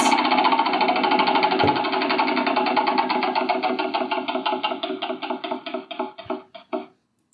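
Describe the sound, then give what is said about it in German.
A prize wheel spins with a loud, rapid clatter of ticks that gradually slows into distinct, spaced-out clicks before stopping. No one speaks over it. “sagen, wir schmeißen mal die, genau, Dreh am Rad, die Maschine der Hölle los.”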